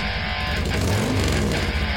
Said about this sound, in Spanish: Vuelven en moto. Aceleran.